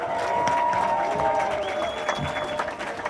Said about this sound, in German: Großen Applaus für unsere Camper!